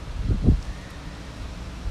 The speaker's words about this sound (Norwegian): Det blåser litt i dag. Jeg fant meg liksom noen stoler, men så behagelig fordi det kommer sånne store vindkast. Men jeg er utenfor, faktisk.